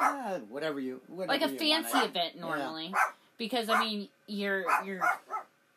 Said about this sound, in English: And obviously, I don't know if you guys can hear, but we have a performer in the background. Yes, we do. Oh, man. What a vocal puppy.